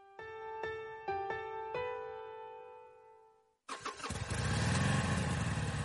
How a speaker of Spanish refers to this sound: Moto. Curvas. Todo sobre ruedas.